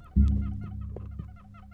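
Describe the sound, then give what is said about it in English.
A chair creaks and squeaks: a low groaning creak starts suddenly and holds, overlaid by a quick series of short, high, chirpy squeaks. No one speaks. “That's my chair, baby.”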